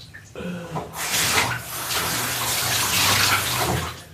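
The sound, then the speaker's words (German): Water gushes steadily from a tap through a vacuum cleaner filter being rinsed, a loud, hissing splash that starts after a brief quiet moment and runs continuously to the end; the water coming out of the filter is dark black. “Okay, das Wasser, was aus diesem Filter rauskommt, ist dunkelschwarz.”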